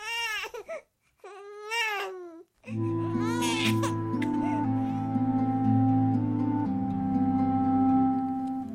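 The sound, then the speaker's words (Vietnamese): A small child, woken in the middle of the night, wails in a few long, rising-and-falling sobbing cries, loud, before a steady sustained tonal drone takes over and continues to the end. “Đứa con nhỏ tỉnh giấc giữa đêm và khóc ngằn ngặt, nhưng người vợ không nghe thấy gì hết.”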